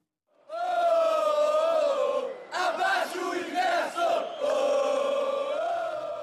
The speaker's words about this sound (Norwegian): Sett ned billettprisene, roper sinte tilhengere av Rio-klubben Flamengo under en kamp på legendariske Maracana stadion tidligere i år.